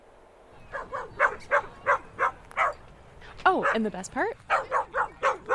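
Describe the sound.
A dog barks in a quick, steady series of sharp barks, breaking briefly into a couple of high, sliding whines before barking again, while a person speaks briefly underneath.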